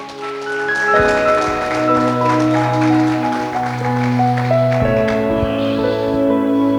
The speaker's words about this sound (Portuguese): Quem quer, quem quer, quem quer? Aplauda o Senhor se você quer.